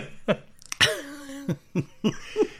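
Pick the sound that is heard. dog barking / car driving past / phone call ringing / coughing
coughing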